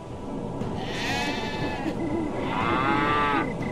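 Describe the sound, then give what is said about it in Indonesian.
Two drawn-out, wavering water buffalo cries, each about a second long, rise over a steady noisy background. The second call is a little louder and more strained, and no one speaks. “Wow, wow, wow, wow, wah, kerbau meronta-ronta dan tidak berdaya.”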